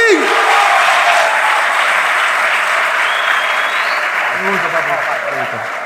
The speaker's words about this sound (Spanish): Un fuerte aplauso.